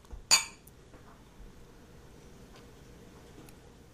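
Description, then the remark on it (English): A single bright clink of two glasses touching in a toast, fairly loud with a short ringing tail, followed by quiet and no talking. “So let's just try this. Let's try it. Let's try it. Cheers. Cheers.”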